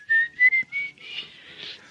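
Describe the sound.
A person imitates an eerie whistle heard in the dark at night in Venezuela, whistling a thin, high, slowly rising tone in a few short breathy bursts, then a longer wavering, airy whistle that fades out, drawn-out with no talking.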